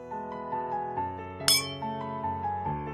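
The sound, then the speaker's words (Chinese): A single bright clink of glasses touching in a toast rings out sharply, then fades over a steady, soft melodic music bed with sustained tones. No one speaks. “我特别想要为我们能真正的理解原生家庭这个词干杯 ，Cheers。”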